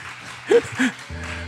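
A crowd applauds with a steady wash of clapping, broken by two short vocal bursts like cheers. Near the end a sustained low tone joins the clapping.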